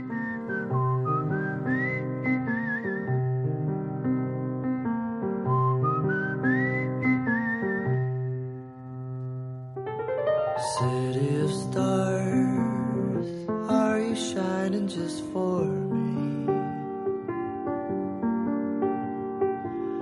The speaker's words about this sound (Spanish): Vamos a escuchar, si es posible, el trailer de esta película y hablamos un poquito más de la ceremonia de los Globos de Oro.